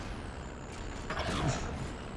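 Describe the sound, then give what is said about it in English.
A heavy truck engine in a video game rumbles steadily throughout as the truck is stuck, and about halfway through a sharp, hissing air brake burst rises over it before the engine drone settles back. “Bro, the truck is stuck!”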